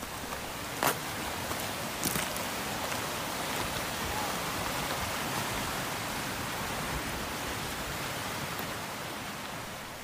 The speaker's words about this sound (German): Das Wasser schießt mit Kraft und Tempo herunter.